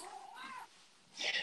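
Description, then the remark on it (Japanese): A cat meows, one drawn-out call rising and falling in pitch, followed by a brief quieter pause and then a short, harsher burst of sound. “またやっぱり猫が鳴いてます。”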